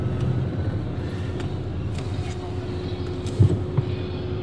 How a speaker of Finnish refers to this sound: täällä on useampia lastauskoneita käynnissä ja tossa on murskataa ja sitten näitä dumppereita tulee